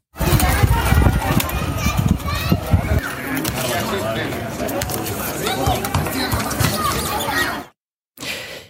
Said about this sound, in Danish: Ja, det vi lige hørte her, det er øh, glade spanske børn, der for første gang i seks uger i går fik lov til at komme, øh, komme udenfor igen.